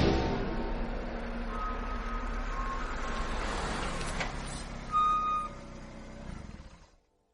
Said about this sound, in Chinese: 车开进了一个大院儿。散问把车停好，